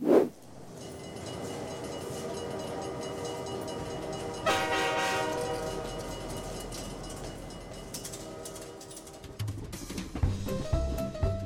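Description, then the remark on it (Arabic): A train sound effect introducing the 'Train al-Shilla' segment: a train rumbles past with a steady, rolling clatter, and a loud horn blast bursts in partway through, its tone ringing out before the rumble thins and fades. No one speaks. “ترين الشلة من محطة لمحطة والوجهة شلتنا”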